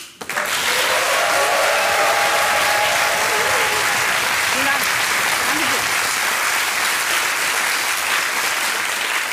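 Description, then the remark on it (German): Sustained applause from a studio audience as a guest is welcomed, a dense, steady wash of clapping that starts abruptly and holds at a loud, even level throughout, with faint voices murmuring underneath. “Ja, vielen Dank für den Applaus.”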